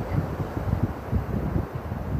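A steady, broad wash of ocean surf along a beach in a bay, with a deep rumbling undertone, continuous and fairly loud, with no voices and a slight windy hiss over it.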